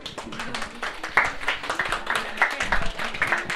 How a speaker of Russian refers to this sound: В принципе, можно даже и аплодисменты сразу.